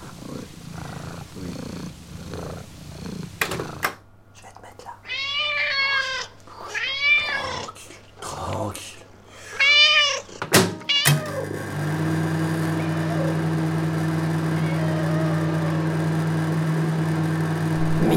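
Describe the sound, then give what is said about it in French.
A cat named Choupette, being called over, meows repeatedly in a run of rising-and-falling, mid-pitched cries, over a low steady purr that continues as a constant rumble once the meowing stops. “Viens le chat, viens.”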